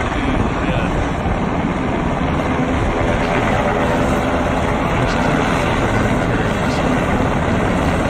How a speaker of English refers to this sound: run inside and come out carrying boxes, get load them up on the helicopters, get in, and then they fly